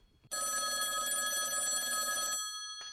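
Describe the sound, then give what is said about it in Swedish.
A phone line rings out as an outgoing call to the second goalkeeper and head coach of IK Standard's floorball team waits to connect: one steady, buzzing ring lasting about two seconds, then the start of another, loud and clear with no voices. “Eh, vi ringer upp eh, andremålvakten i IK Standards innebandylag.”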